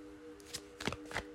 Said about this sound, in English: All right, Leo, I am shuffling the Modern Witches Tarot.